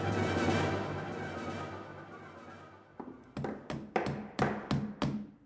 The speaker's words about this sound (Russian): Алексей утром проснулся от стуков молотков – Слуги и солдаты срочно ставили временные деревянные стенки в нескольких комнатах.